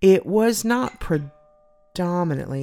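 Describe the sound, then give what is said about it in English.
A faint, steady two-tone chime from a phone sounds briefly in a pause between stretches of people talking. “that's my phone.”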